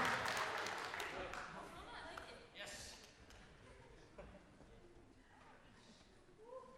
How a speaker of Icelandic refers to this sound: klappiði fyrir þeim